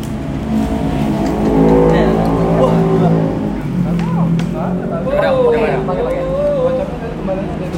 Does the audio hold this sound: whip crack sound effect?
no